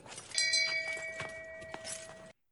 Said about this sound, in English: I'm still going to get the shame bell sound effect and pop it right in there.